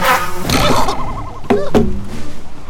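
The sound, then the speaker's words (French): A tsetse fly's wavering buzz drones, rising and falling in pitch, broken by two quick sharp puffs or thwacks from a blowgun near the end, with no voices present. “dégaine la sarbacane et endort d'un coup de mouche Tsetse, le flamand qui tenait le cube.”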